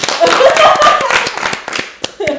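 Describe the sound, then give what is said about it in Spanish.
An audience claps loudly, a dense, rapid patter of many hands with voices calling out over it early on, thinning toward a few scattered claps at the end. “Aplaudan. Desde todos aplaudan.”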